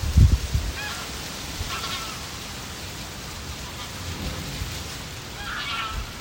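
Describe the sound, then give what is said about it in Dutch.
Wind blows steadily through a small city garden, the Radiotuin, in Zeeland, with a low, rushing rumble, opening with a brief buffeting gust; faint bird calls chirp now and then in the background. “Het waait al dagen in de radiotuin. Met soms ook een buitje.”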